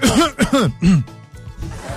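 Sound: cough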